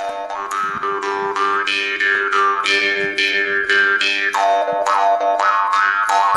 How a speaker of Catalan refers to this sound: que és un arpa de boca